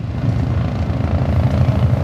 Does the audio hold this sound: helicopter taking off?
yes